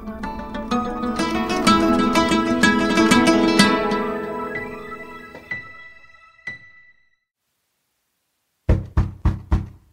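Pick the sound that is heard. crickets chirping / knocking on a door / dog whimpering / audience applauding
knocking on a door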